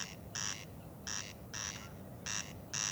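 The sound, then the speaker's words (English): A single corncrake calls at night from long grass with harsh, rasping double notes repeated steadily, each burst answered by a slightly delayed echo off a nearby house. The calls stand alone over a quiet night background. “And we can, it sounds like there are two, but that's one corncrake with its echo from a nearby house.”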